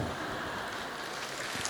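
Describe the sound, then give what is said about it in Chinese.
Steady, dense applause from an audience at a Buddhist talk, apparently with only women clapping, a continuous wash of many hands clapping at even loudness for under two seconds, with no voices heard over it. “鼓掌的怎么都是女士了？”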